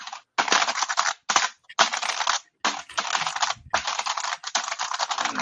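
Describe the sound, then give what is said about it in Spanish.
Rapid, clacky typing on a mechanical keyboard, fairly loud, coming in dense bursts of keystrokes separated by brief pauses, with no voices. “Eh, ¿Quieres oír un teclado mecánico?”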